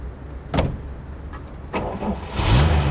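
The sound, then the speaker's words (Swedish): A car engine cranks and catches after a couple of sharp mechanical clicks, then rises into a steady revving hum as the car drives off, moderately loud, with no voices; the driver is heading to an old pharmacy to get petrol. “Han körde till gamla apoteket för att ta bensin”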